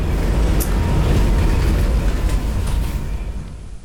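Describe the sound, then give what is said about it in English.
A steady, loud low rumble of an old Czechoslovak-built tram rolling along rails in Tallinn while it snows, with a constant mechanical drone and faint rattling, heard from inside with no talking. “Yeah, the old trams are from Czech Republic, not Czech Republic, but Czechoslovakia.”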